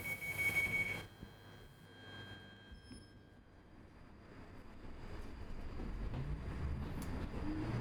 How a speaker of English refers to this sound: So the sounds you hear today are those of an imaginary electric railway that was never built.